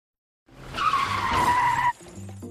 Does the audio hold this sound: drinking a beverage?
no